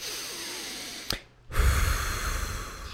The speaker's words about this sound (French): Là, je vais t'inviter à faire quelque chose, tu vois. Prendre une respiration.